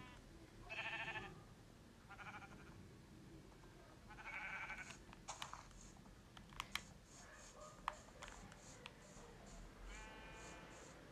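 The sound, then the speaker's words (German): Several wavering sheep bleats from a game, some close together, over a low background hum, with sharp clicking keyboard taps scattered between them. “Hat ein Schaf angegriffen?”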